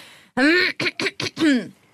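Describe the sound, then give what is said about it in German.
Someone clears their throat in a quick run of about five voiced bursts: a longer one, three short rasps, then a final drawn-out one, with no talking. “Räuspert, räuspert man sich eigentlich als so Nachrichtenfrau?”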